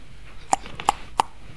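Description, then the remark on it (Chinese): Three sharp knocks on a door, evenly spaced about a third of a second apart, each a crisp hollow rap over quiet background hiss with no voices. “有人敲门了。”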